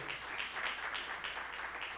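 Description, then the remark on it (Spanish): A church audience at a Hispanic service of the Iglesia del Noroeste breaks into steady welcoming applause for a newcomer, many hands clapping together in a dense, even patter that holds at a consistent moderate level throughout, with no voices standing out. “Démosle un aplauso de bienvenida al caballero.”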